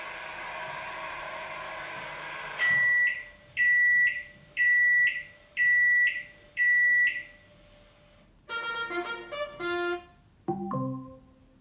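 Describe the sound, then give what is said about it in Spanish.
Five loud, evenly spaced electronic beeps from a kitchen oven ring out after a stretch of steady hiss, followed by a quick flurry of bright chiming tones. “El tercer ejemplo es que si se detecta un pitido del electrodoméstico que corresponde al pitido de nuestro horno, entonces nuestro asistente de voz lanzará un anuncio de trompetas en toda la casa y dirá el mensaje, la cena está lista.”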